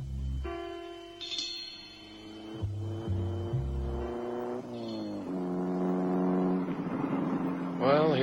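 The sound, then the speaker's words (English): A car engine hums steadily while driving, its pitch stepping up and down as it shifts through gears, continuous throughout with a low rumble underneath. “Will you keep your eyes on the road?”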